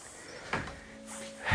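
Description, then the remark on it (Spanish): A person squeezes out from between a chair and a large crucifix: a dull knock, a faint drawn-out creak, then a heavier thump as the chair and the crucifix are pushed. No voices. “Estoy intentando salir porque estoy ajustado entre el Cristo y, la silla.”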